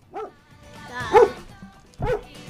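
dog barking

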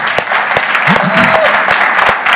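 audience clapping

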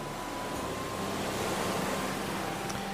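ocean waves at sea

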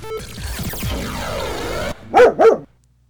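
dogs barking

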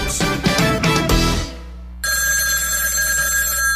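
telephone ringing

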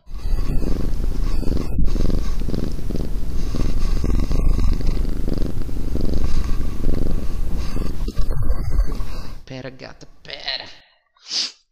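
cat purring

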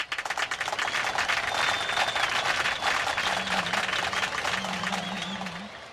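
applause

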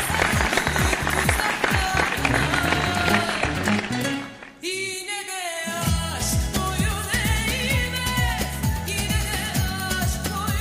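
applause

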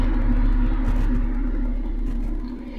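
airplane flying overhead

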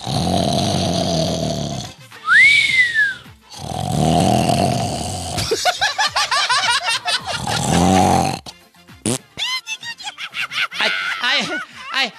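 snoring

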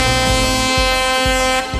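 truck air horn honking

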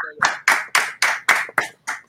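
hands clapping in studio

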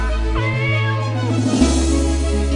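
cat meowing

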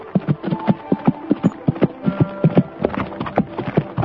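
horse hooves galloping closer

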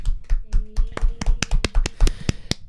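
applause

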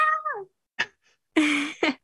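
cat meowing

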